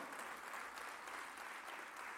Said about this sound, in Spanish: Vamos, denle ese aplauso a Jesús